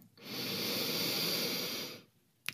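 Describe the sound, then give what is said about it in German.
A single long, steady, airy inhale through the right nostril, the left nostril closed with the right ring finger during alternate-nostril breathing, lasting about two seconds, followed by a brief soft click. No one speaks. “Und dann fangen wir an und atmen mit dem rechts ein.”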